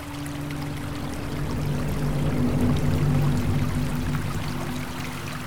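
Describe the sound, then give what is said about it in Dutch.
The small river Schaik flows steadily, a continuous burbling and rushing that swells slightly in the middle, with a low hum underneath and no voices. “Het riviertje de Schaik zoekt kronkelend haar weg.”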